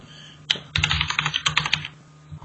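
A burst of rapid computer keyboard typing, a quick flurry of clicky keystrokes lasting over a second before tapering off, with a low steady hum underneath.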